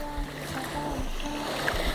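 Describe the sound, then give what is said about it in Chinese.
Gentle sea waves of the Seto Inland Sea in Japan wash steadily onto a white sandy beach in late September, a continuous soft hiss of water with faint low swells rolling in and out; a steady low hum sits underneath, and no one speaks. “现在我正在日本濑户内海，这里的海非常的宁静，可以听到一波一波的海浪冲刷着白色的沙滩。”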